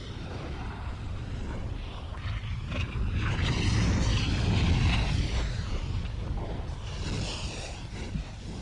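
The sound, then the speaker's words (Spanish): A deep, continuous rumble with a roaring, wind-like texture fills the whole stretch, swelling slightly in the middle and staying heavy in the low end: the churning roar of a volcano, with magma and fire. “Fuego, magma, volcanes. Lo que oímos es la fuerza de la naturaleza abriéndose paso bajo nuestros pies.”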